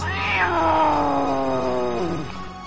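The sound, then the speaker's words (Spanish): A single long, drawn-out cat meow, loud, starting high and sliding slowly downward in pitch before trailing off, with no one speaking. “Finalmente salió al encuentro de la ratita un gato gordo de bigotes enormes.”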